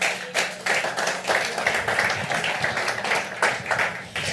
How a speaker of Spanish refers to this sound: Dale un aplauso fuerte al rey.